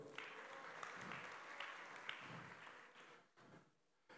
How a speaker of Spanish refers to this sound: Un aplauso